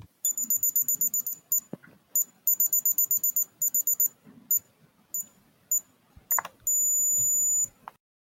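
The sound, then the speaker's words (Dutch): An electric ear thermometer, used to check for fever, beeping: bursts of rapid, shrill electronic beeps separated by short pauses, ending in one steady high tone held for about a second, with faint rustling underneath. “Ja, het was een elektrische thermometer.”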